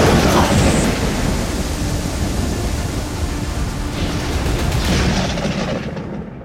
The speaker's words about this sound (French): Cette affreuse tempête dure plus de cinq heures.